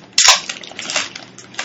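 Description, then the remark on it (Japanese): A can is cracked open in a karaoke box with a sharp metallic pop, followed by a steady, bright fizzing hiss that rises and falls slightly as the carbonation escapes. No talking. “なんならわざわざ缶を開ける音を乗せるっていう”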